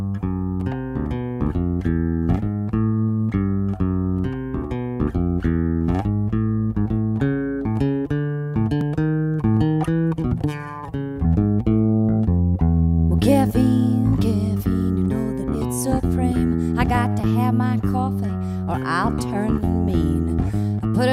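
The opening of a 1985 song by a North American female singer, an ode to caffeine, plays with steady, melodic instruments, then swells about midway into a fuller, brighter band sound with added percussion, loud throughout.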